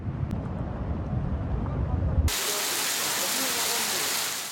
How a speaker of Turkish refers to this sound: Aydın'da kuvvetli sağanak sonrası manzara buydu. Sel mahallenin ortasından böyle geçti. Kaldırım taşlarını söküp sürükledi.